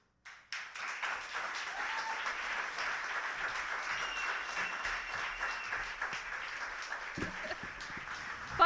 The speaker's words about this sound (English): The audience is clapping and the judges are writing, and the judges are going to get some numbers up in the air for me right about now.